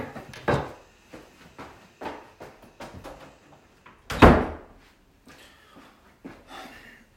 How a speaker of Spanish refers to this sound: Voy a cerrar la puerta, espérense.